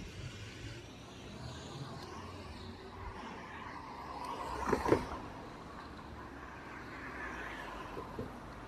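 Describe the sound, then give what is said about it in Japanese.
Steady outdoor traffic rumble from passing cars, heard while walking outside, with a brief louder swell about halfway through as a vehicle goes by. No one speaks. “車の音だとか、なんかちょっとわずかな音からなんかこう判断して”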